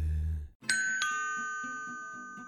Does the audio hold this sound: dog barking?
no